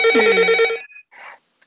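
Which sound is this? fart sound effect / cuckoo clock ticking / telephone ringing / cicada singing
telephone ringing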